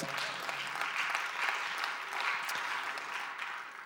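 An audience claps for a preacher's story of a multiplication miracle, a dense wash of many hands applauding with no pause for about four seconds, holding a fairly even loudness throughout.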